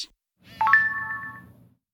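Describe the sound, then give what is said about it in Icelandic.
A short electronic chime rings out once, a bright two-tone notification sound that holds briefly and fades over a soft low rumble: a phone alerting to a new SMS text message on a Sunday evening. “Upp á klukka nýjum kvöldið fær Seth SMS.”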